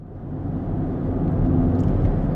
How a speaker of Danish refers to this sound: Ja, vi sidder øh, i bilen på vej øh, ud til Djursland vi har fået en uh, lidt særlig opgave i dag.